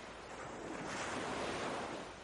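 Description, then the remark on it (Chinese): Ocean waves surge in a steady, broad rush of surf that swells louder toward the middle and eases slightly at the end, with a faint windy hiss and no voices. “在遥远的、深深的。波涛汹涌的大海里”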